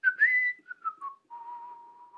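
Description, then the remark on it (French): A man whistles a short melodic tune as he goes back to the window blind slats, a rising opening phrase followed by a few shifting notes and a long held tone, with no talking. “Il retourne en sifflotant trouver les lames du store.”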